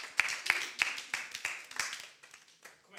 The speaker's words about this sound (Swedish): Come on. Ge er själva en stor applåd först innan vi kör.